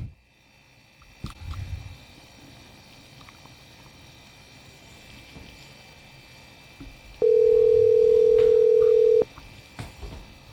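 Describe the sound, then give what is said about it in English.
A single steady ringback tone from an outgoing phone call sounds for about two seconds, loud and clear over faint background noise, with no one speaking. “So I'm going to give her a call here in a second”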